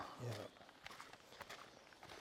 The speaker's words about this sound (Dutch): Want die microfoontjes zijn best gevoelig. Dus je hoort van alles. En onze stappen. Precies. We, lopen dus op een zandpad. We zijn aan de wandel.